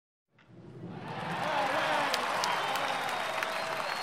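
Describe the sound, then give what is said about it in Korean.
A large stadium crowd at a baseball game between a Mars team and an Earth team roars and cheers, swelling quickly from silence into a dense, sustained wall of noise with scattered shouts and whistles, loud and continuous throughout. “주심의 판정 소리는 관중들의 함성에 묻혔다.”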